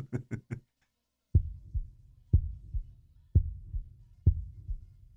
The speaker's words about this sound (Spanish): Pero el corazón siguió latiendo, con un sonido ahogado. Claro que no me preocupaba, pues nadie podía escucharlo a través de las paredes.